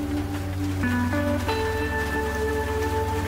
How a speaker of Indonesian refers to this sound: Di perjalanan kami cukup santai mengendari laju motor sambil ngobrol ngalir ngidul sampai akhirnya hujan pun turun cukup deras.